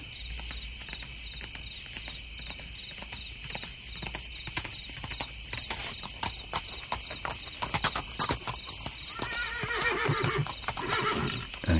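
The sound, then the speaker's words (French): A horse's hooves clip-clop in a steady rhythm as a rider arrives from the east and stops a few steps away, followed by a loud, drawn-out whinny near the end. There is no talking. “cavalier, exténué et sanglant, vint de l'Orient. À quelques pas de moi, il glissa de son cheval.”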